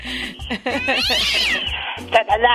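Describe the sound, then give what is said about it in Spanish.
A cat meows loudly, a series of drawn-out, wavering yowls with a whiny, caterwauling edge, over a faint low hum in the background. “Ah, Imagínate, pues, hasta, su gato come caviar.”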